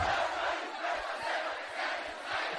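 A large audience with both hands on their hearts shouts a pledge together in unison, repeating it louder, a loud, dense roar of many voices chanting at once, sustained without pause.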